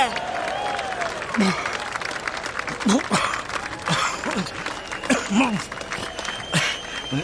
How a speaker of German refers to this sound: Aber trotzdem, Leute, sechs Chilichoten hintereinander, das ist schon ordentlich. Ein kleiner Applaus bitte.